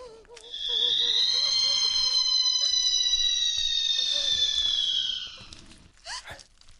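A ghostly woman's screech rings out, loud, shrill and piercing, held for about five seconds while sagging slightly in pitch, over a faint, low, wavering drone, then cuts off abruptly.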